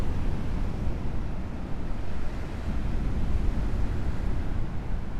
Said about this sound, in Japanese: 今日は海岸に来てみましたよ波の音が聞こえるかなと思うんですけど